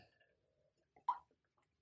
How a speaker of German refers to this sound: Entschuldigung, kleiner Schluck Wasser. Muss auch mal sein, ne?